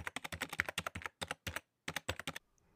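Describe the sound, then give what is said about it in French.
Quick, crisp taps on a computer keyboard in irregular bursts, with a couple of brief pauses, fairly loud with no voices, as a meteorologist leans over to tap the keyboard at a computer screen. “Il fronça les sourcils, posa son café et se pencha pour tapoter le clavier.”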